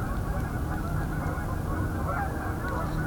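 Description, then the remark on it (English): A flock of about 300 Canada geese coming in to land about a kilometer away, honking in a continuous, overlapping chorus of calls held at a steady level with no voices. “So that was about 300 Canada geese coming in.”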